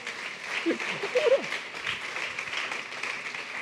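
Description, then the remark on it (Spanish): An audience breaks into steady, dense applause offered to God, lasting the whole few seconds, with a few voices calling out briefly near the start over the clapping. “¿Cuánto da un aplauso a nuestro Dios?”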